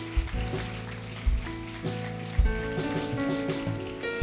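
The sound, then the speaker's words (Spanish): A church audience at a morning worship service applauds for the Lord after a prayer, a steady, dense patter of clapping, with sustained keyboard chords and a few low thumps of music playing underneath throughout. “Dar un fuerte aplauso al Señor en esta mañana.”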